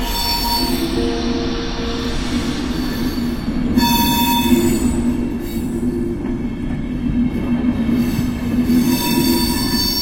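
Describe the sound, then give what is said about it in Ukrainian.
A high-speed train slows to a stop under a concrete bridge, short of a town, in an area belonging to a railway station. A continuous metallic squeal of wheels and brakes sounds over a steady rolling rumble, loud, swelling slightly midway and again near the end, with no voices. “Швидкісний поїзд зупинився, не доїжджаючи до якогось міста, під якимось бетонним мостом у зоні яка правдоподібно належала вже залізничній станції.”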